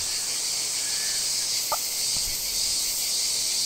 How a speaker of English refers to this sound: This is a cicada. Hold on. Exactly, because they don't live out here. Yeah, cicada.